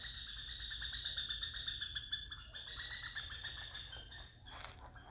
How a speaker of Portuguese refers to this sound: Ah, esse aqui eu até fiquei quieto porque acho que vocês conseguiram ouvir, porque ele gritou bastante. É isso, pessoal. Estamos aí. É um pássaro enorme, preto. Nossa, ele é muito grande. Tá lá numa árvore lá em cima, fazendo um barulhão.